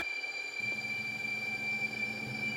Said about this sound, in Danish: Det var en S-togstation, jeg var ved. En af dem nede på banen imod Køge.